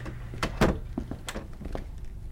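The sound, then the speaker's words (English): A door to a hallway swings shut with one solid, low thud, preceded and followed by a few lighter clicks and scuffs of the latch and handle. No one speaks. “Shut the door behind you and head out to your right.”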